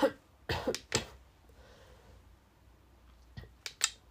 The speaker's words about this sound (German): mein Gott, ich bin echt noch nicht ganz gesund. Ich muss die ganze Zeit husten, das ist furchtbar. Tut mir echt leid.